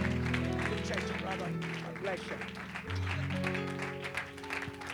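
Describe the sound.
An audience at an evening church service applauds steadily for about five seconds to welcome a preacher to the pulpit, a dense wash of clapping over sustained organ chords, with a few voices calling out in the mix.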